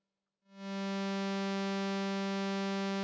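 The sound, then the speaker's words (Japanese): A minilogue analog synth holds a steady, buzzy low tone rich in overtones as a triangle wave from a second oscillator is gradually blended into the single-oscillator base wave, starting after a brief silence and sustaining evenly at full volume, alone with no voices. “徐々にちょっと三角波の波を組み合わせしていってる状況ですね。”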